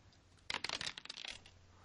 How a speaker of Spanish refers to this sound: así que vamos a tirar eh, cuatro dados de cuatro. Y vamos a, a, quitar el mayor. ¿Cuatro de cuatro? Sí.